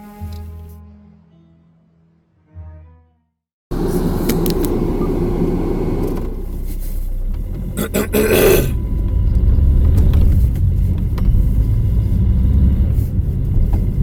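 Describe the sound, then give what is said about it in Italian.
A car engine rumbles loudly and steadily, preceded by a few seconds of low droning tones and a brief pause before the rough, continuous engine noise takes over. “bentornati sia a me che sono ancora vivo e alla macchina”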